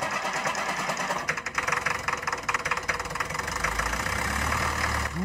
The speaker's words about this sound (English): Roar went the tractor.